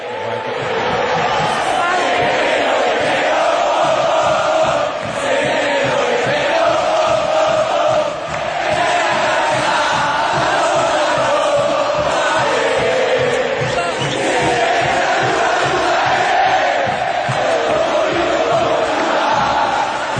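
A large crowd of football supporters chants loudly in unison, a dense, sustained roar of voices carried by a steady rhythmic pulse like drumming or clapping, continuing without a break.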